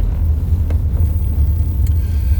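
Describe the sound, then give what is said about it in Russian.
A steady, deep rumble of a car moving through road traffic, heard from inside the vehicle, continuous and fairly loud for the whole stretch, with a few faint ticks and no voices. “Тут мы встали как-то далеко. какой-то какой сегодня другой трафик на дороге у нас.”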